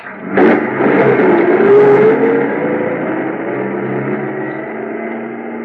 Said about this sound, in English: I stood there in the snow watching the headlights of the truck move away. Finally, they swung around the bend and disappeared.